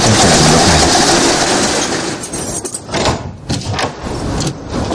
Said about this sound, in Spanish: saca unas llaves y abre